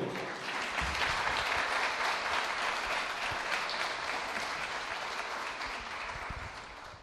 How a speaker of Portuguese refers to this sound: Vamos receber o servo de Deus aplaudindo o nome do Senhor.